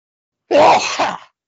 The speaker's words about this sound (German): Gesundheit.